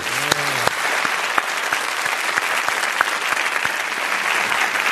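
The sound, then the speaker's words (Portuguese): An audience breaks into sustained applause, a dense steady patter of many hands clapping at even loudness throughout, with a brief voiced exclamation near the start. “Pueden aplaudir.”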